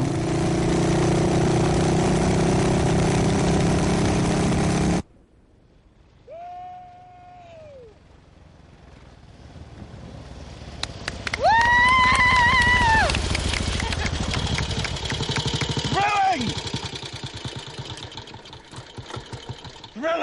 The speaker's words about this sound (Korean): 주인공 프레디와 그에게 긍정적이든 부정적이든 어떠한 깨달음을 준 사람들이 너른 벌판에 나와 있습니다. 자신이 정한 지점까지 오토바이를 타고 빨리 갔다 오는 게임을 하고 있죠.